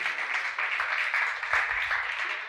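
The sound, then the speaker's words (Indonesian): A church audience applauds for themselves, a steady wash of many hands clapping at even loudness throughout, with no voices standing out. “Dan boleh dulu tepuk tangan untuk diri Anda sendiri.”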